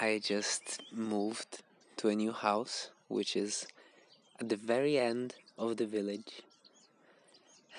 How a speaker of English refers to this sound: I hope you can hear the birds in the background.